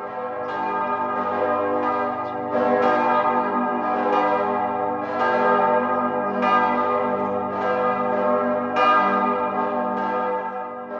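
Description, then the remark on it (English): A chapel bell is tolled on Remembrance Day after the two-minute silence at 11, in slow, steady strikes roughly every two seconds, each rich ringing tone blending into the next. It sounds full, with no voices. “So on Remembrance Day, we gathered in the antechapel and we did the moment, the two-minute silence at 11, and we tolled the bell, which we have the chapel bell there, and it is a place of remembrance in many different ways.”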